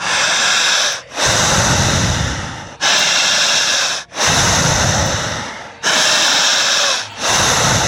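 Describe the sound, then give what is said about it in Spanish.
Loud, forceful panting breaths of a man doing a breathing exercise, alternating inhales and exhales in a steady rhythm of about six strong breaths, with no talking. “Escuchar lo que hace …. En casa, empiecen a jadear.”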